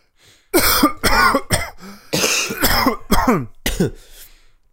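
A person coughs repeatedly, a run of about seven or eight harsh, loud coughs in two quick bursts with a short pause between, and no talking.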